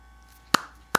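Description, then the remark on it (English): Two sharp hand claps, about half a second apart, each a crisp loud smack standing out against a quiet low hum, with no talking. “I clapped my hands.”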